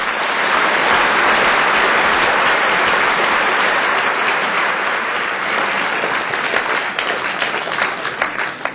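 Sustained audience applause at a debate, in support of a speaker, fills the whole stretch, a dense steady wash of many hands clapping at a loud, even level, with some sharper individual claps near the end as it begins to thin.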